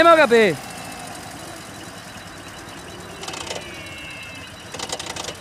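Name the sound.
motorcycle engine running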